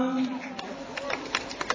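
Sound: clapping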